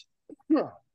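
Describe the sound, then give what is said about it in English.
A single sneeze: a quick catch of breath, then one sharp voiced burst that drops in pitch and fades within a fraction of a second. “Bless you.”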